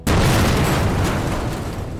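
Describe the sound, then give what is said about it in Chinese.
A man's Hummer luxury car is blown up by a car bomb with a sudden, heavy boom, followed by a loud, rumbling roar of debris and fire that stays strong for two seconds and fades only slightly. “他的整台哈姆豪车爆炸了。”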